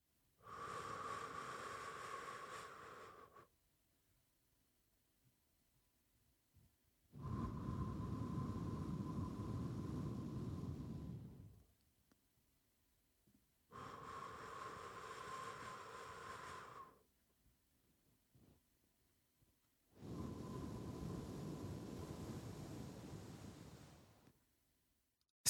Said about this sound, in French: Ça consiste à inspirer pendant 3 secondes, à retenir sa respiration pendant 3 secondes et à expirer pendant 3 secondes. Tu vas donc inspirer par le nez et expirer par la bouche.